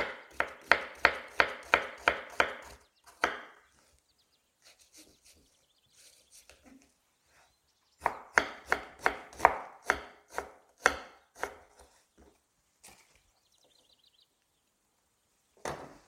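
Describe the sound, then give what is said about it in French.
Rapid knife chops on a cutting board as an onion is finely diced for a stuffing, two bursts of quick, sharp, evenly spaced taps separated by a pause, with a few scattered softer knocks afterward. “Maintenant que mon oignon est haché, ciselé, je le fais rejoindre mon petit bouquet de persil.”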